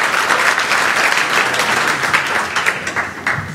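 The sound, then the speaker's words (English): A room full of people applauding steadily as the speaker's wife stands up to be introduced, a dense wash of clapping that stays loud and even throughout before easing slightly near the end. “And if you knew what I put her through, you would definitely be applauding more than that as well.”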